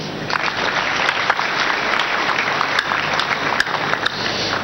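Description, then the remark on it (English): Steady audience applause for a man fills the whole stretch, a dense wash of many hands clapping at an even loudness with a few sharper individual claps standing out, and no one speaking over it. “No, Clap for him.”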